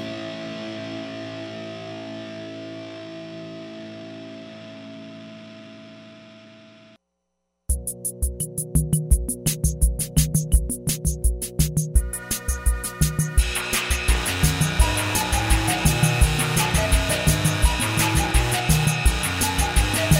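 A recorded song plays: sustained droning chords fade out, a short silence follows, then a loud, driving beat kicks in with buzzy, distorted instruments and steady percussion. No one speaks.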